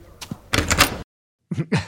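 Several close, sharp knocks rap out in quick clusters, separated by a brief silent gap before a final loud pair of raps.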